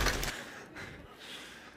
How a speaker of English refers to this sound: I chose them for their demonstration of a one ton axe falling on a fridge at 45 meters.